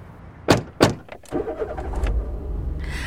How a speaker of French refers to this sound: Allez, viens, on remonte en voiture. Ok, on y va.